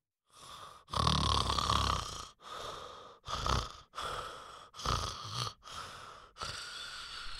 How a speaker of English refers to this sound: Hey, man, I'm the head of security here at the mall, and I'm sorry, but you can't park here, and your snoring is scaring all the customers. Oh, shit, my bad. Real talk, bro. I think you should get some help. Like, that snoring sounds serious, bro.